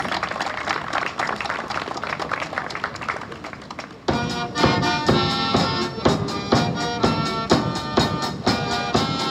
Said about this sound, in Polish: Wielkie brawa dla naszych artystów.